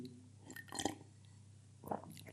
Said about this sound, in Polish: łyknę sobie herbaty, jeżeli pozwolicie. Dzięki.